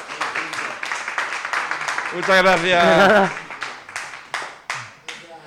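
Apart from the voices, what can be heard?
audience applause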